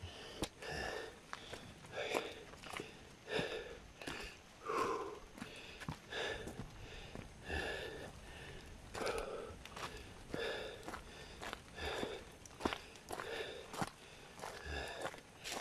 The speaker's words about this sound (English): Now you hear me panting and grunting a little bit here. It's it's uh, hey, it's it's a it's a good little stretch of the legs.